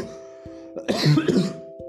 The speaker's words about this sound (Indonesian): maaf gue batuk